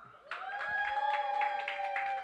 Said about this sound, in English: Hey yo, cl- hey, yo, crowd. If you would keep that beat, clap it up.